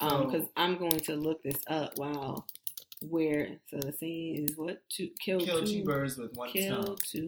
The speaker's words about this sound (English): Okay, y'all might hear some of the sounds in the background and typing and stuff.